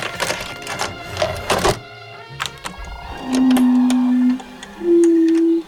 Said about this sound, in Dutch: Wat je, wat je nu hoort is een vertraagd winterkoning.